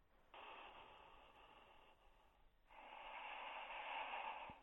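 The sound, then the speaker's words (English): Loud, noisy nasal breathing of a man, almost a snore: a long rasping inhale, a short pause, then an even longer, heavier breath. It sounds slightly muffled, as if over a phone, and no one speaks. “He does breathe clearly, though, doesn't he?”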